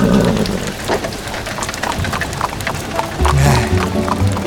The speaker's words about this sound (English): Uh, it is time to walk, horses. Walk!